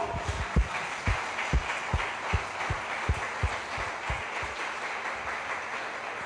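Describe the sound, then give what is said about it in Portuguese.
A church audience applauds the Lord in a steady wash of clapping, with soft rhythmic low thumps beating along underneath. Nobody speaks. “Nós estamos aqui, dê um aplauso ao Senhor pela sua vida.”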